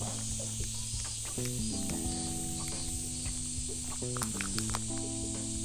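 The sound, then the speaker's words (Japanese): A steady, dense drone of cicadas buzzes continuously outdoors in summer, fairly loud, with some low humming tones shifting underneath; no one speaks. “いやもうセミが本格的に鳴いてますねあの雨が多かった時は若干おとなしかったですけど”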